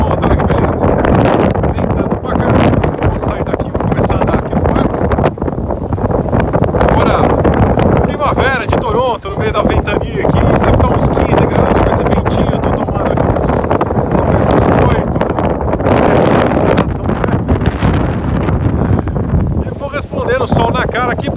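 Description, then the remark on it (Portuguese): Strong wind buffets the microphone in a loud, continuous roar throughout, in Colonel Samuel Smith Park by Lake Ontario, with a person's voice talking underneath the blustery rumble. “Ventando pra caramba, tô aqui vestido de pinguim.”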